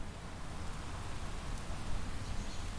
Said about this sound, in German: Ja, und so, ich finde zum Beispiel, was eines meiner Lieblingsgeräusche ist, ist, wenn Wind durch die Blätter an Bäumen so durchfährt. Das ist jetzt, was jetzt hier so.